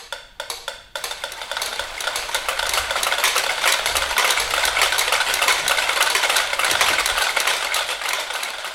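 A few isolated ticks start things off, then many metronomes join in, merging into a dense, steady clatter of overlapping clicks that stays fairly loud throughout, with no voices.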